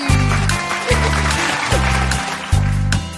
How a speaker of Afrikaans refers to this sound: Dames en here, kom ons klap hande vir ons wenner